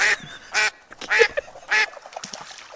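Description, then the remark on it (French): A duck quacks loudly several times in quick, uneven bursts, with a few softer, lower calls between them, clear with no talking. “Est-ce qu'on prépare une émission spéciale canard,”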